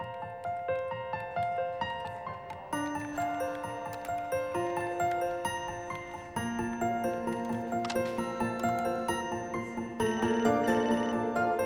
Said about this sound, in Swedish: Men nu, en annan sak som också skiljer är ju då att vi har en ny eh, vignett speciellt för det här och den låter så här.